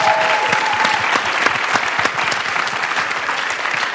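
An audience claps for themselves, a dense wash of many hands applauding at an even level throughout, with no voices standing out.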